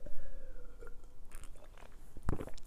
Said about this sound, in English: We sip some lemonade, throat skin dry. And as you know, the lemonade is anti cough.